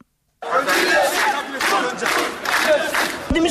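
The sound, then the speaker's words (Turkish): A large crowd of about 500 laid-off miners marching in Zonguldak shouts and chants together in loud, rhythmic surges, many voices merging into a dense roar that rises and falls in waves, forceful. “Zonguldak'ta işten çıkarılan 500 madenci yürüyüş düzenledi.”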